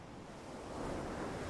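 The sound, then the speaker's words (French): Steady ocean surf washes onto a beach, a broad rushing hiss that swells slightly louder toward the end as a wave breaks. Continuous and enveloping, with no voices. “Hypnose relaxation intense avec le bruit des vagues”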